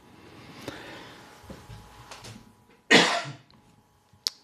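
A single loud, harsh cough bursts out near the middle, followed by a faint sharper click or tap, with quiet background rustling and low murmur around it.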